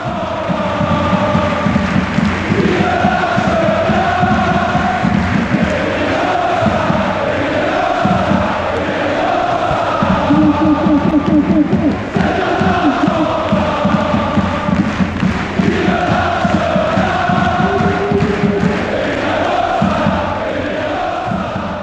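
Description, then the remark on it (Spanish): A large crowd of Nantes football fans in the stands chants a sung, rhythmic melody in unison in the ninth minute of the match, loud and sustained throughout, with voices rising and falling together in a repeating tune. “El mismo al que ahora, en cada minuto 9 de partido, llueva o haga sol, se gane o se pierda, siguen recordando los aficionados del Nantes con un cántico que brota en la grada y desemboca en el océano.”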